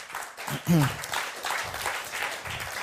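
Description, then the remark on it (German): A crowd claps steadily throughout to give a man another round of applause after he has spoken, a dense wash of applause with a brief shout or cheer rising over it early on and voices mixed into the noise. “Hey, merci, gebt ihm einen Applaus noch.”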